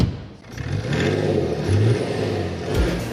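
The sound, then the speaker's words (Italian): A diesel car engine accelerates as the car is taken for a drive, its low rumble rising and falling in pitch as it revs through gears, steady and fairly loud with no talking. “E allora saliamo in macchina e andiamo a fare un giro.”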